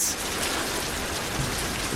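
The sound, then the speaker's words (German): Heavy rain pours down in London on the day of Queen Elizabeth II's coronation, in a steady, dense hiss, constant for the whole stretch, with individual drops spattering on a hard surface and no voices. “Wie aus Kübeln hat es heute vor 68 Jahren in der englischen Hauptstadt geregnet.”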